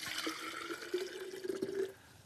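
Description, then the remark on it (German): Warm water is poured into an opened lidded jar in a steady stream for about two seconds, with a faint ringing tone as it fills, then stops abruptly. No one speaks. “So, Deckel auf, Wasser rein.”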